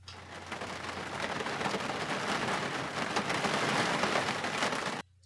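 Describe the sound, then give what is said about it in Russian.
Hail patters steadily on a windowsill, a dense crackling clatter of many small impacts with no clear rhythm, fairly loud and continuous for about five seconds before cutting off abruptly. “Это за окном идет град и просто стучит по моему подоконнику время от времени вот так вот”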